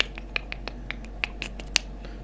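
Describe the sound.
A quick series of sharp, dry clicks, made by mouth to imitate a bat's echolocation, ticking irregularly about a dozen times in two seconds over a quiet background hum.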